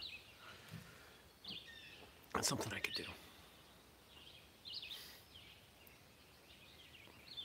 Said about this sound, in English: More birds. I like the sound of birds. I like the function of birds. Birds themselves are kind of gross.